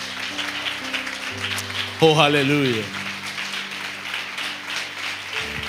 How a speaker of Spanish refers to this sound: Den un fuerte aplauso a nuestro Dios.